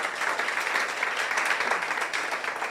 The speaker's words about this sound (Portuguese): Você pode dar uma salva de palmas ao nosso Deus?